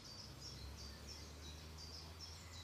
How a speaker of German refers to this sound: Und boah, was ist hier los? Es kommt mir wahrscheinlich nur so extrem vor, weil ich jetzt gerade die Aufnahme mache. Sonst merkst du das gar nicht, wenn du hier bist. Naja. Auf jeden Fall, ähm, hört doch mal die Vögel.